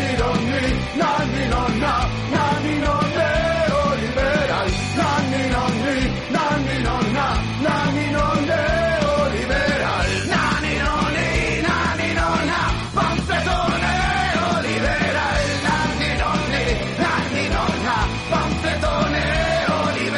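A loud, dense rock song with harsh shouted vocals over driving drums and distorted guitars, playing continuously at full volume throughout.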